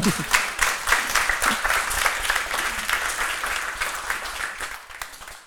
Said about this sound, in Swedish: En applåd på det tycker jag.